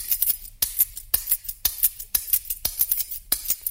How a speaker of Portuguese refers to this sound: acompanhar o ritmo da canção batendo na palma aberta da mão esquerda com um molho de sete chaves que segurava com a mão direita